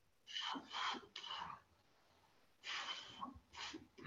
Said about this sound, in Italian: Ok, finito il respiro, ferma, riprenda il respiro e poi dopo può andare avanti.